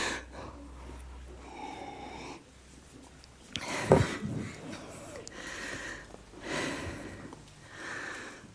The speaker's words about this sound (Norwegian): Jeg skal bare puste bitte litt.